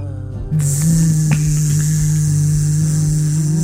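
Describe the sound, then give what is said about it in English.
A loud, steady electric buzzing drone starts abruptly after a short moment and holds unbroken to the end, a low hum layered with a bright, hissing edge. “There's a noise in your head, a buzzing.”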